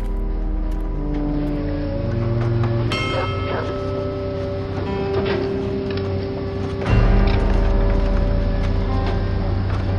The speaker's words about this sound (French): À une centaine de mètres de là, les excavatrices poursuivaient avec précaution leur travail dans le cratère, creusant et dégageant les gravats à la recherche des dernières personnes manquantes.